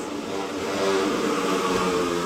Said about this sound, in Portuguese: É o moço da motocicleta que pode passar aqui todo dia né?